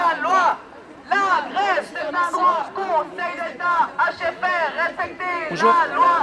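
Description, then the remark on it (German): A dense crowd chatters at a street demonstration in Fribourg against privatising the cantonal hospital's crèche, in the rain; many overlapping voices form a loud, continuous babble with no single speaker standing out. “Wie du hörst, ist das heutige Polyphon auf die Straße gegangen.”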